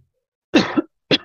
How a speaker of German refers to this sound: Entschuldigung, muss mal kurz husten.